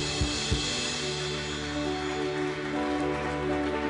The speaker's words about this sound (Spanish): Vamos con esas palmas bien fuertes para el Señor, porque hoy en esta mañana usted y yo estamos alabando su nombre. Aplaudan fuerte a Jesús.